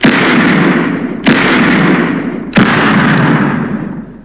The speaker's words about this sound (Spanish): En una bodega, todos son disparos en una bodega, todos son... Y como es una película de Tarantino llena de bala, pues se, come todo el espacio y, lo saca uno.